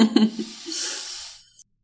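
A snake's hiss: one steady, breathy hiss lasting about a second, moderately loud, after a brief low voiced sound at the start, then silence.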